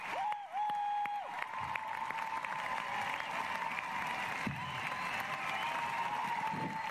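A steady wash of audience applause for an invited guest lasts several seconds, dense and sustained, with a brief musical tone at the start and faint cheering mixed in.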